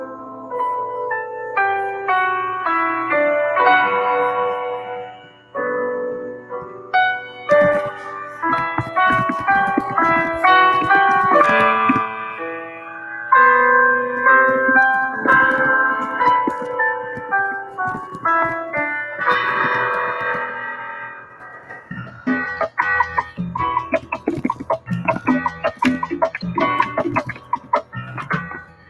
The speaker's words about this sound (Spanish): porque la gente quiere escuchar musiquita y aquí tenemos un tema la producción nos regala.